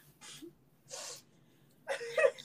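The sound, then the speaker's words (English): Three short, breathy sniffles, evenly spaced, with the last one louder and longer with a slight wet, whiny edge, over a low steady hum and no talking. “Oh, who's who's sniffling?”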